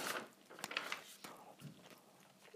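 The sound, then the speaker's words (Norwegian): Wet chewing and biting with several crisp crunchy bursts in an irregular rhythm, a person eating food while talking. “Sorry, jeg spiser og herjer på.”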